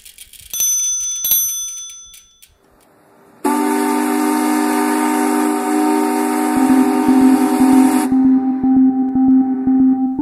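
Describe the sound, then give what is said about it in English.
Bright ringing chimes give way to a loud, harmonic-rich old factory steam whistle in the town of Corning, upstate New York, which still sounds four times a day, blasting steadily for several seconds, then settling into a lower sustained tone over a rhythmic mechanical thumping. “It's the old steam whistle that still goes off four times a day in the town of Corning in upstate New York, home to Corning Incorporated.”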